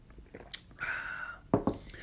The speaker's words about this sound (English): Getting a sip right now.